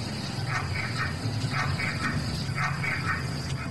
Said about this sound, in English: There's that growl. That growl too. Yeah. Yeah, that, that I hear is like really cool.